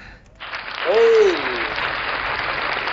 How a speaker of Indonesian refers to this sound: Eh, pandit custom kita inilah kita kasih tepuk tangan untuk pandit custom.